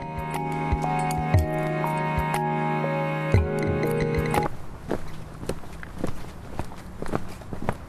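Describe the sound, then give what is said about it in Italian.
Steady footsteps crunch along a forest path through dense vegetation in the Montemario reserve, a path leading to a moat, at an even walking pace; for the first half, sustained musical tones ring over them before cutting off, leaving the steps alone. “attraversiamo un sentiero nella riserva di Montemario che arriva fino al fossato, avvolto da una fitta vegetazione”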